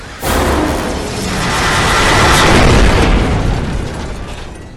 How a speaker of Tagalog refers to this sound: Tuluyan nga ding bumagsak ang helikopter sa lupa na siyang nasasakupan ng bayan ng San Mariano. Kasabay ng pagsabog na napakalakas ay ang pagyanig ng kalupaan ng naturang lugar.